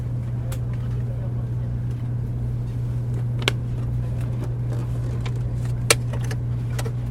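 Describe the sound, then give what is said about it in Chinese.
Many people stowing luggage inside a carriage of a fast train: scattered clicks and thumps of bags over a steady low engine hum, with faint indistinct voices murmuring throughout. “然后进到车厢里面，它又比火车更加的安静， 感觉一下，这是有很多人在放行李啊哈。”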